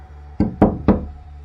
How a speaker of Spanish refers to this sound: Cuenta que alrededor de las 12, alguien tocó a la puerta tres veces.